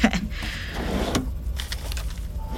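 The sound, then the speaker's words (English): A top desk drawer slides open with a rough, rumbling scrape lasting about a second, followed by quieter rustling and faint handling noises. “Headphones. Top drawer.”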